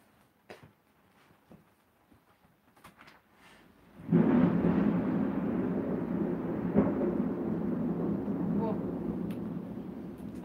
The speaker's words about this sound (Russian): может опять остановить грозу или дождь в прямом эфире